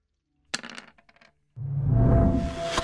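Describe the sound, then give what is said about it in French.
Dice are rolled for a 'discern reality' action in a game: a sharp clattering rattle of quick clicks, a brief pause, then a louder, sustained rolling rumble as they tumble across a surface. No one speaks. “Je te laisse jeter euh, ton jet.”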